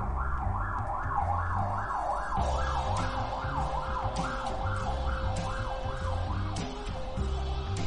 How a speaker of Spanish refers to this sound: pasa bien la ambulancia, así que voy a esperar un momento